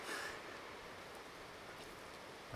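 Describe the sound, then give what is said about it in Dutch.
A steady, soft hiss of rain beginning to fall, even and continuous throughout with no distinct individual drops, fairly quiet and with no voices. “En nu begint het te regenen.”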